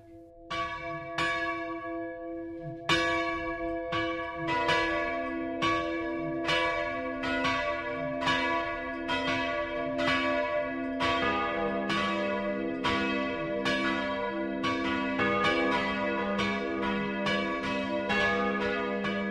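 The bells of St. Cyriakus, a Baroque church in Schwemmelsbach, Lower Franconia (Schweinfurt district), ring the Sunday noon chime in a steady, overlapping peal, with repeated loud strikes and long resonant tones sustaining beneath them, and no voices.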